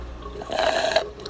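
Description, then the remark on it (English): Someone drinks water from a glass, a brief gurgle and swallow lasting about half a second, heard alone against a quiet background with no talking. “just finished my glass of water.”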